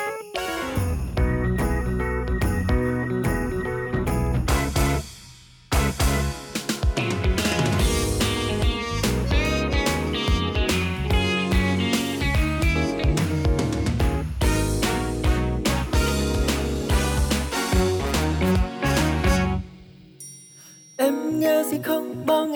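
A full-band Vietnamese pop song instrumental intro plays loud and steady with bright melodic lines over bass, briefly dropping out twice before resuming; no singing or talking.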